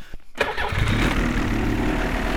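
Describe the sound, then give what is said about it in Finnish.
A snowmobile engine cranks briefly, then catches and settles into a loud, steady rumbling idle, with no voices, in Lapland, Finland. “Me sanoja moottorikelkalla kotia ja ei ole meinaa ruuhkaa kehä kolmosella eikä missään muuallakaan.”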